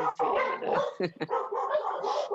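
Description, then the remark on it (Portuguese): Several dogs bark in a busy, overlapping chorus, with sharp yips and a couple of distinct barks standing out near the middle, loud throughout. “Não, olha, agora que os ouço, os cães também.”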